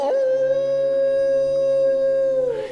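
A single long, steady wolf howl, held on one clear pitch for over two seconds with a brief rise at the start and a fall at the end, loud, with no other sounds.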